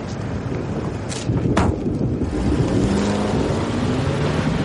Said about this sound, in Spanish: El vehículo se aleja dejando a la joven ahí.